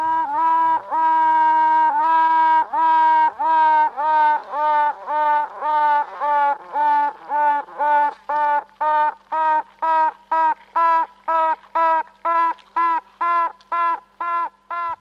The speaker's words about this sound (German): Das war das Tüten einer Bienenkönigin, ungefähr zwei bis drei Tage nach dem Schlüpfen.